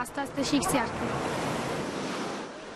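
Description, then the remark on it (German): Steady roar of ocean surf washing onto a beach at Cox's Bazar in southern Bangladesh, with wind buffeting around it; a faint voice briefly rises over the wash at the start before the waves continue alone. “Sie brauchen mehr als Wind und gute Wellen, davon gäbe es hier in Cox Bazaar im Süden von Bangladesch genug.”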